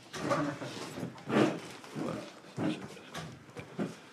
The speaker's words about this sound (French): Oui, oui, c'est mon chien, c'est mon chicon, chicon. Hein. Allez, ah, petit, bien. Chicon Chicon, oui, comme un chicon.